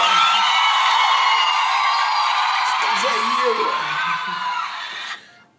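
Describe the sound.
A crowd cheers and whoops in a dense, steady roar that slowly thins before dropping away at the end, while a man speaks briefly underneath.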